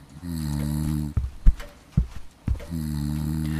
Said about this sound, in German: Hört sich das für dich auch nach Schnarchen an? Ja, schon. Hm. Meinst du, der Sessel schnarcht?